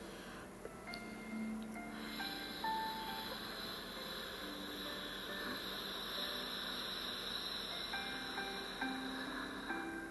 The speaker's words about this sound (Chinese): 哦，大家有没有听见那个喉腔的那种共鸣的呼吸声音？哎，就是嘴巴闭上，它可是还是会有这个声音哦。